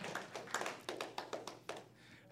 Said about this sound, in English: When you have faith, go ahead. One claps, we all clap, right? Come on.